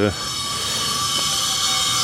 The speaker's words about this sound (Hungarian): És kijöttem ide az udvarra, és itt ilyen kellemes flexelés hangjai szombat délelőtti flexelés.